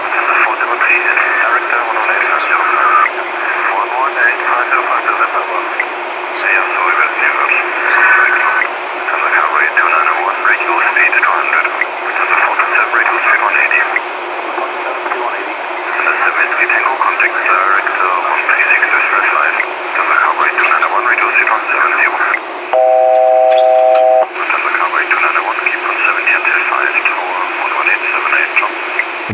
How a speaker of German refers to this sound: Genau, wir werden jetzt gleich dann übergeben zum, zur Anflugkontrolle und da wird dann wieder einiges auf dem Funk auf unsere Ohren reinkommen.